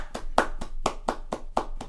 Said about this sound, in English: It, she does not have an Eagle Scout because that is for Boy Scouts, but she has two other awards that are both in and of themselves equivalent of Eagle Scout, and I think she deserves a round of applause.